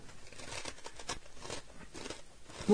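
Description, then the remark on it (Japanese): Crisp crunching of nori-salt flavored konjac chips from the Natural Lawson snack line, being chewed by a person with eyes closed: a steady run of dry brittle bites repeating for a few seconds with no one talking. “ボリボリボリボリ音がしてるね。”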